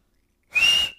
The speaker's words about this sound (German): Kannst du eigentlich so mit so äh, vier Fingern im Mund pfeifen? Nee, kann ich nicht. Warte, ich probier's mal.